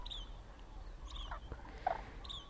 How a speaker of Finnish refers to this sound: Parvissa voi erottaa myös kurjen poikasten piiskutukset, joka ammoin johdatteli siihen mielikuvaan, että pikkulinnut matkaavat etelään kurkien selässä.